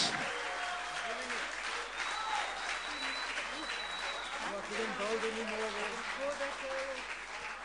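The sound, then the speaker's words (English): A crowd applauds the backing vocalists steadily for several seconds, a dense, loud wash of clapping that never lets up, with scattered voices calling out and cheering over it. “Can we just give an extra round of applause for my backing vocalists?”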